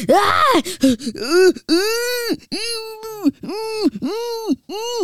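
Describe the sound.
A person vocally imitates a rough grunt, then launches into a string of loud, wavering screams, four or five drawn-out cries in quick succession, with no other talk.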